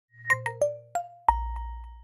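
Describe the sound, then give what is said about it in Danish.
The classic Nokia Tune ringtone from Nokia phones plays a quick run of bright electronic notes, then settles on one longer ringing tone. It is clear, with no one talking. “Det her det var den klassiske Nokia Tune, altså ringetonen fra Nokia-telefonerne, det var den lyd, der var den mystiske lyd i den foregående episode.”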